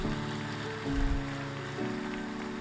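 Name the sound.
audience applause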